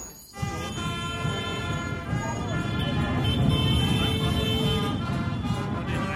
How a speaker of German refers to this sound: Jetzt geht es los. Die vielen Weihnachtsbiker eskortieren zwei große Trucks.